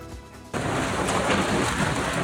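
Storm wind and rain in La Chaux-de-Fonds, northwestern Switzerland: after a brief quieter moment, a dense, steady roar of rushing wind, up to 217 km/h, and pouring rain bursts in and holds loud and unbroken, with no voices, blowing away roadside tables, chairs, shop signs and sheet metal.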